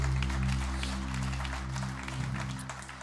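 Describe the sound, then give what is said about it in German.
An audience breaks into steady, sustained applause for God after a prayer, a dense wash of many hands clapping, with a low organ or keyboard chord droning underneath throughout. “Lass uns Gott nochmal einen großen Applaus geben.”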